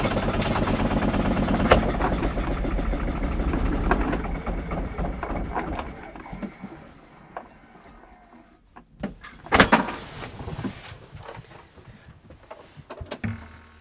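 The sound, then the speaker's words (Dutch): A diesel engine runs steadily with a rhythmic low chugging for several seconds, with a slight barking in the intake because an intake valve does not fully close, then drops to a quieter idle, with a single sharp clunk near the end. “Nou, hij blijft toch wel mooi doorlopen?”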